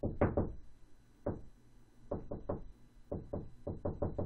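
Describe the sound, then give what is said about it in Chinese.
Knocking in short irregular clusters: three quick raps, a single knock, then groups of three and four sharp, hollow knocks separated by brief pauses, with no voices present. “敲击声依然持续着，他还是觉得很害怕”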